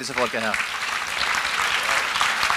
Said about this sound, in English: Can you all just stand up where you are? Er and, and I want us to give these people a really good applause and say,